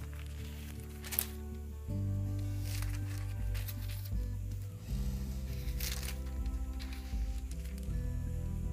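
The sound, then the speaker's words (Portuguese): Pages of a paper Bible are turned several times to find John chapter 6, each flip a brief papery swish, irregularly spaced over a steady low droning background with no talking. “Só um minuto, meus amados, porque é na Bíblia física.”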